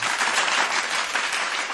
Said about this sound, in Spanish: Venga, fuerte aplauso